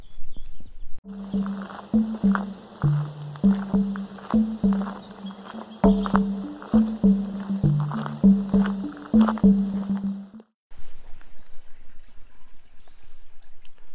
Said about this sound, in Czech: Slyšíte vodu, což znamená, že jsme u vody. a v našem případě, že jsme u tekoucí vody a konkrétně u Vachtlova mlína, což je na půl cesty mezi Losinou a vesnicí